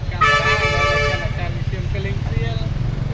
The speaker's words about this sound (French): Il y a énormément, énormément de scooters, beaucoup de voitures aussi, beaucoup de tuk-tuk et un peu de pousse-pousse, des vélos euh, avec euh, porteur d'une personne. Et du coup, c'est un peu très pollué.